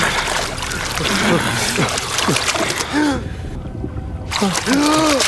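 Water churns and splashes continuously as young men, still clothed, swim away from the shore of a lake among thin pines and dive underwater, with muffled bubbling sweeps and gurgles like sounds heard underwater, steady throughout.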